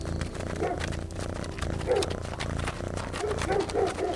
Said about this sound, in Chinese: 等太阳完全落山后，八一老爷的房间外突然响起了很多牛、羊、狗的声音。